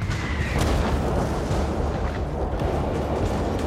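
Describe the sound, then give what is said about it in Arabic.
Continuous low rumbling booms of shelling in Yemen at night, heard from an old boat moving away from land; a dense, heavy bombardment with repeated deep thuds rolls on without pause, blending into a steady roar, and no voices present. “ابتعد القارب عن اليابسة تاركا وراءه صوت القصف”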